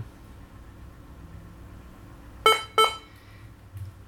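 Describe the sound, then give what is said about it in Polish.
A Debian installer boot beep sounds twice in quick succession, two short, bright electronic tones rising above a quiet low hum, with no talking, as a laptop boots the Debian installer disk from the boot menu. “Usłyszeliśmy charakterystyczny wstęp dysku Debiana.”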